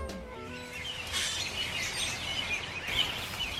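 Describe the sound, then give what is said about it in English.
A flock of about forty robins calls busily in November over Boulder Creek in Boulder, overlapping chirps and tweets filling the air at moderate volume, with a steady rustling wash of wingbeats and outdoor noise underneath as birds fly close by a bridge over the creek. “Wow, that was there a bunch of robins. Forty robins.”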